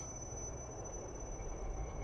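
Steady low rumble inside a night train rolling along rails, with constant mechanical hum and faint high-pitched whine, continuous throughout, no voices.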